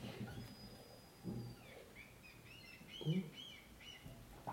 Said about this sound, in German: oh, konntet ihr das hören? Wir sind in Hamburg. Falls man es nicht gehört hat, es gab Möwen.